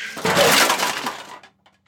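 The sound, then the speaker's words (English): Trash dumped out by a monkey tumbles out in one loud, rattling crash lasting about a second, a dense clatter of hard bits and debris that fades quickly, followed by a couple of faint small knocks. “Why would you dump the trash out? Now there's trash everywhere.”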